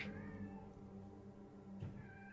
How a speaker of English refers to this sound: Also, I'm so sorry that you can hear my cat, everyone. he was fine was until just now. I thought that was I thought that was a sound effect.